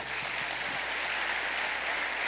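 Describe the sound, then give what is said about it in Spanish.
A church audience in Bogotá, Colombia applauds the Lord for their church, a steady, dense wash of many hands clapping at even loudness throughout, with no voices standing out above it. “¿Puedes dar un aplauso al Señor por tu iglesia?”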